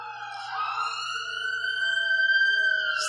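A police siren wails outside, one long, steady tone that slowly rises in pitch and holds over a few seconds, fairly loud and clear with no voices over it.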